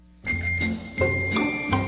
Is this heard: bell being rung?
yes